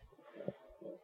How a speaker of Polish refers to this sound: przynajmniej bardziej jest szum wzmacniacza.